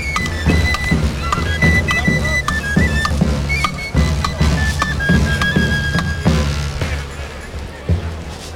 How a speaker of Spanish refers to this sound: Así es, fíjense cómo suenan estos tamboriles, estos tamborileros que tienen más de dos siglos y medio de historia de camino.